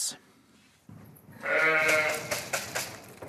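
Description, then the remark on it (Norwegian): Ewes and lambs bleating in the barn at Jønsberg upper secondary school in Stange: a loud, wavering bleat rises after a quiet start, followed by a few shorter, higher bleats, with faint background rustling. “I fjøset på Jønsberg videregående skole i Stange har søyene fått lam.”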